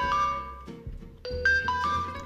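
A notification chime on the speaker's phone plays a short melodic run of bright tones, one note after another, clear with no talking over it.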